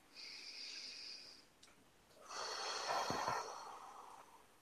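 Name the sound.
deep breath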